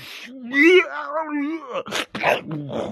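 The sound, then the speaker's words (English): A man lets out a drawn-out, wavering pained moan, fairly loud, which breaks off into a few sharp, breathy gasps. “We can, we can, get him screaming for sure.”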